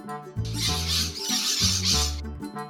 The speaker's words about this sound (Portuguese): Um grupo de papagaios que estava no galho da árvore se assustou com a presença de Nina e saiu voando ao mesmo tempo